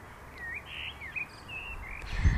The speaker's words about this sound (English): and now I see a little, little bird in front of me. It's newborn. ah, how sweet.